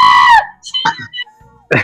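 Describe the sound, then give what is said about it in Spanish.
A voice briefly imitates a shrill, excited scream of young girl fans, a loud high-pitched 'ah' held for under half a second, followed by short bursts of speech. “piensan que …, que … es para las minitas que gritan ¡Ah!”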